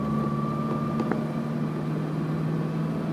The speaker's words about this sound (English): Oh, there's a garbage truck right there.